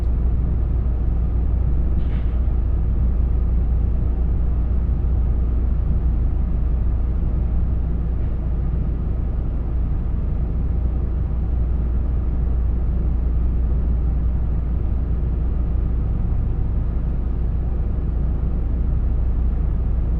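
Steady interior rumble of the Limited Express Nanpu No. 20 on the Dosan Line (Oboke to Tadotsu), approaching Zentsuji Station, a dense low drone that holds even throughout with a faint brief clank early on and no voices.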